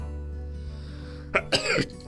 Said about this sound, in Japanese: 失礼しました。あくしゃみが出ちゃった。